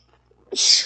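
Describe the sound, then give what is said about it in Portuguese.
A single sharp sneeze bursts out of near silence, a short catch of breath followed by a loud, hissing exhale. “Como meu espirro recorrente, por exemplo.”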